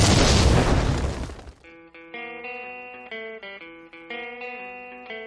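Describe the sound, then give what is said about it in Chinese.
A loud, noisy explosion sound effect introducing a show segment bursts out and rumbles away over about a second and a half, followed by a bright, tonal electronic jingle playing a short melody. “下面马上进入到今天的生活大爆炸环节， 瞬间爆炸。”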